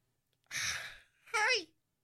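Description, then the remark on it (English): A voice imitates a sleeping child's yawn as it stretches: a long, breathy intake of air followed by a short, voiced, drawn-out exhale that slides downward in pitch. It's fairly loud, with no other sounds. “The sleeping child stretches and yawns”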